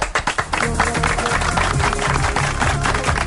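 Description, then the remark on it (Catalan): A burst of hand clapping, starting with a few distinct claps and quickly swelling into steady, dense applause from a group that continues at an even, fairly loud level. “Això això que tu aplaudeixes amb sí.”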